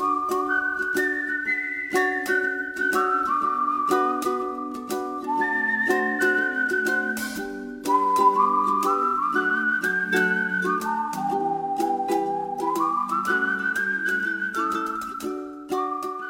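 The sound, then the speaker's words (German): A bright synthesized whistling melody from the animated film Best Friends glides through a cheerful tune over steady chordal accompaniment, continuous and fairly loud for the whole passage, with no voices. “In vielen anderen Stücken erledigt das Pfeifen heute der Synthesizer oder der Computer.”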